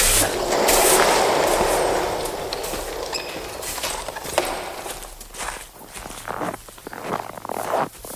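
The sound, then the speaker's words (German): Horse hooves clop in an uneven rhythm at a racetrack over a dense, rushing wash of outdoor noise. The noise fades partway through, leaving sharper hoof and step sounds. “Der macht mir noch die Pferde unruhig.”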